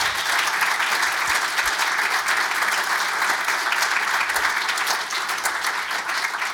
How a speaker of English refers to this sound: but would you thank them with a round of applause finally, please?